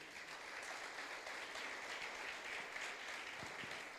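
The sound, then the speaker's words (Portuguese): Sustained applause for Jesus from a church audience at night, a dense, steady wash of many hands clapping at an even loudness for the full few seconds, with no talking over it. “E se você está com essa alegria toda, para Jesus, dê um forte aplauso nessa noite.”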